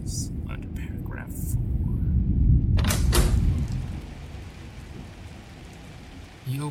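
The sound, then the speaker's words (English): Steady heavy rain from a storm that has raged for several days pours down while deep rolls of thunder rumble loudly through the first half, then fade back into the constant hiss of the downpour. “Somehow, the rain the past few days hasn't let up, and the storm above kept raging on.”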